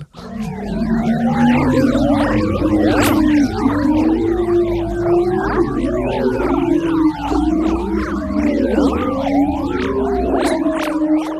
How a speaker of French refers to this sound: Mais là, tempête arrive et ça ressemble à ça alors voici la musique de l'aurore boréale.